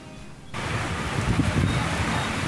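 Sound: heavy rain downpour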